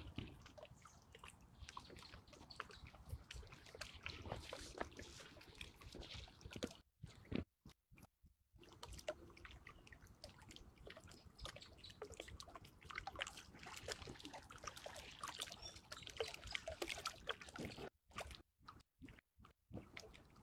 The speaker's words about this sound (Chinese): 能听见昆明湖的水声吗？